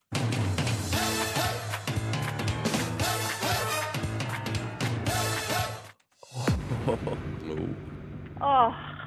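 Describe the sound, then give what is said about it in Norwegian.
A loud, upbeat TV theme tune with a steady bass beat and what sounds like sung vocals, briefly cutting out near the end before a different section kicks in. “Det handler om TV-kjenningsmelodier.”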